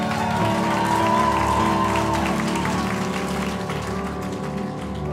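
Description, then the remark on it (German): Sustained crowd applause with some cheering at a church service, honouring a member who has just finished her studies; a dense steady wash of clapping that stays loud throughout, layered over a low humming tonal background. “Das ist dein Applaus.”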